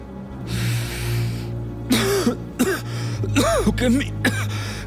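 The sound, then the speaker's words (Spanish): A smoker coughs out smoke after a drag on a cigarette at a sink, spitting small drops of blood: a rough, hacking cough in several harsh bursts in quick succession, with a breathy exhale at the start and a low steady hum underneath. “Tose humo y unas pequeñas gotas de sangre manchan el blanco mármol del lavabo.”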